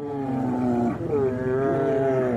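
Two large adult brown bears roar and growl while wrestling each other in a loud, continuous tussle, their deep overlapping bellows rising and falling, with no talking.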